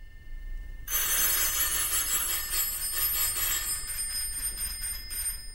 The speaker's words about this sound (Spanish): esto que estamos escuchando, los timbres de casa, es el inicio de la tercera escena del Gran Macabro